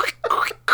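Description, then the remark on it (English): A voice imitates a wet, squishy choking sound in the throat: three short gurgling bursts in quick succession, fairly loud, with brief gaps between them. “all you hear is like, like my throat is making a really squishy like”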